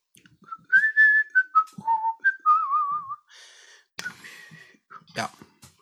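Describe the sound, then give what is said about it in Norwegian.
A person whistles a short, bouncy jingle melody in place of a missing jingle, the pitch stepping and sliding between notes, followed by some breathy, laughing noises and a little background chatter. “Så vi får bare Jeg får plystre en, da.”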